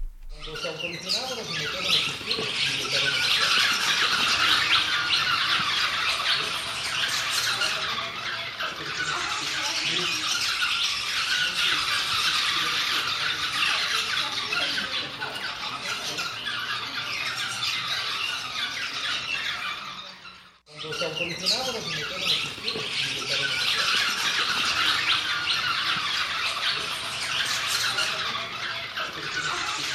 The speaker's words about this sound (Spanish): Mira, pájaros en la casa de las palomas en Uxmal, Yucatán,